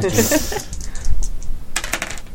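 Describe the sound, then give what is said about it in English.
A pair of dice clatter across a hard tabletop, a quick burst of sharp clicks that settles, then a second short rattle of knocks. “I've got two dice.”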